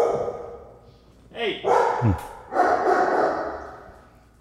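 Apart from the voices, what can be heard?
dogs barking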